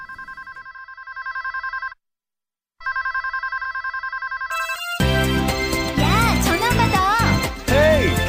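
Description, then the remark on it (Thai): A telephone rings in two clear electronic bursts with a short silent gap between them, then louder music with voices takes over for the remaining seconds. “the phone. It's for you.”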